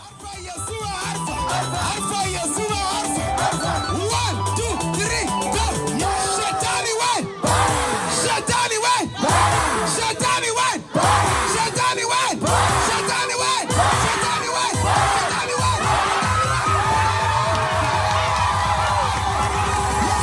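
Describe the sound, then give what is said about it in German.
A loud, dense crowd of villagers yells, whoops and cheers continuously, many voices overlapping in joyful celebration after 112 people gave their lives to Jesus, with a couple of brief dips before the noise surges again. “112 Menschen geben ihr Leben Jesus und dann bricht die Freude aus.”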